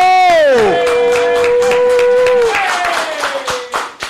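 An audience claps and cheers for about four seconds, welcoming a guest for an exclusive interview on Molusco TV, while a loud, sustained tone slides down in pitch and holds over the steady patter of clapping.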